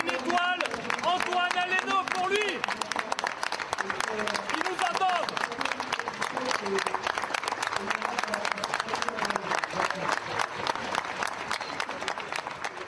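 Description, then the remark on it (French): At the Taste of Paris gastronomy festival, culinary professionals burst into sustained, dense applause for one minute in tribute to a chef, staying steady and loud for the whole stretch, with a few voices and calls mixed in near the start. “une minute, on va applaudir.”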